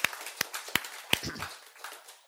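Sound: brief audience applause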